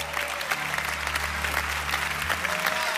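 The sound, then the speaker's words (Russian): Steady applause from a large audience, dense and continuous for several seconds with no one speaking over it. “Это достойно громких аплодисментов прямо сейчас.”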